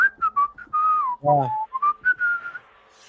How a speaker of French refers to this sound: Mais pourquoi il siffle C'est ce qui est plus suspect, non Les mains dans les poches, comme ça.